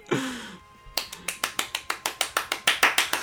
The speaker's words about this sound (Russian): Овации, овации в студию.